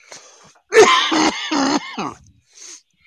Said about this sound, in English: Are you vaping weed? like, yeah. Why are you coughing?